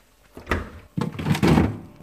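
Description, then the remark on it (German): A freezer door is pulled open and pushed shut to take out frozen parsley while cooking, giving a few dull thunks and soft rattling bumps over about a second, with no one speaking. “Leider habe ich keine frische aber zum Glück ist eine im Gefrierschrank.”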